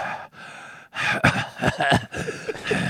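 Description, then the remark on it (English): Heavy breaths rush straight into a microphone, a series of sighing exhales and sharp gasps across a few seconds, loud and breathy with no talking. “Uh, somebody's, somebody's, somebody's breathing.”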